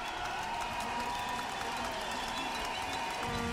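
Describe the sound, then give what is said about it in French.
Steady applause from a climate march on rue de Saxe as gilets jaunes (yellow vest) protesters meet and join the march, a dense continuous patter of many hands clapping with a murmur of voices and faint cheers mixed in throughout. “La rencontre est applaudie, les gilets jaunes rejoignent le cortège.”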